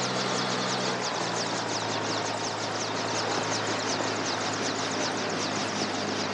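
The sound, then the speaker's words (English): A helicopter runs steadily, its engine whine and rapid rotor chop forming a loud, continuous drone with no voices over it, in a scene from Conquest of the Planet of the Apes with an ape next to the helicopter. “we're starting minute four with Armando and the ape still next to the helicopter”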